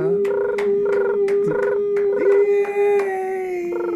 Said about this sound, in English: Wow, the crickets really love you. Yeah. That's that's see when it's hot they go fat they chirp faster. They were chirping pretty fast.